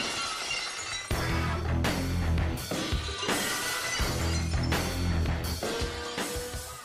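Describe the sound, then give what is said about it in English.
Loud glass shattering crashes erupt repeatedly in a rhythmic pattern over a heavy, driving musical backing, with no voices: the professional wrestling entrance sound of Stone Cold Steve Austin. “And of course, when you hear that glass, you know it's your ass.”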